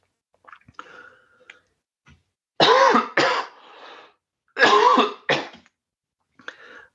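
Two loud bursts of harsh coughing and throat clearing, each a pair of rough hacks about two seconds apart, with softer throaty rumbles and small clicks before and after.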